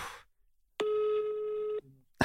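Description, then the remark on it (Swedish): A single steady electronic ringback tone sounds for about a second as a call is placed to the newspaper VLT, clear and fairly loud, with brief snatches of voice just before and after it. “Ehm, men eh, så jag, jag tänkte, jag ringer VLT nu och sen, sen, eh, sen får vi se vad det här leder”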